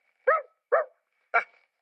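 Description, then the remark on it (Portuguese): A small dog named António Costa barks three times, short sharp yaps with a brief pause before the last one, heard on their own with no talking. “E resolvi chamar António Costa ao canito para baralhar ainda mais o Ministério Público.”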